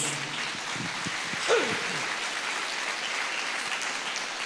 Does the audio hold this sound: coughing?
no